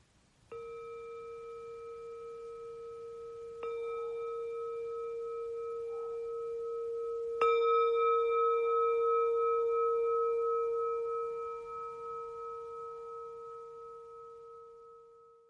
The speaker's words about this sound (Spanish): Simplemente descansando la atención en unas respiraciones más en este silencio hasta escuchar el sonido de la campana.